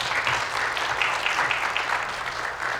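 A crowd applauds steadily for a few seconds, a dense wash of many hands clapping at an even, fairly loud level with no voices standing out.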